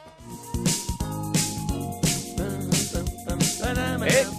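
An upbeat 1980s pop song plays loud, with a steady punchy drum beat about twice a second under bright synth chords and a bouncy bass line.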